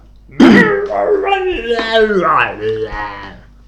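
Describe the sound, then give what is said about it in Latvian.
A human voice imitates crazy dogs from the city howling and whimpering at the foot of a tree on a hill, with a rough burst followed by several rising and falling whiny moans, fairly loud, lasting a few seconds. “Tad kādu rītu viņš izdzirdēja kalna koka pakājē kaut ko kliedzam. Tie bija trakie suņi no pilsētas, viņiem pietrūka cilvēku pilsētā, viņi atskrēja šeit pie sava jaunā upura.”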